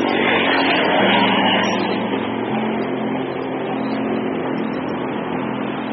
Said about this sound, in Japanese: ね、多分今めちゃくちゃ車の音入ってたと思う。